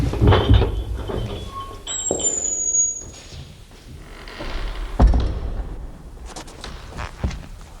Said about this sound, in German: Doch zu ihrem Erstaunen ließ sich die Tür mit einem leisen Quietschen öffnen.